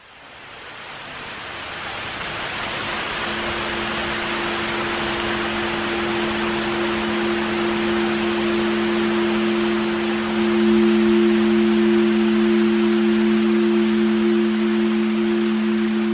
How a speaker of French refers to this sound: Là, il pleut, il mouille vraiment beaucoup et c'est dangereux.